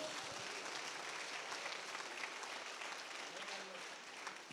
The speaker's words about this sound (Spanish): ¿Alguien le da palmas al Señor esta tarde?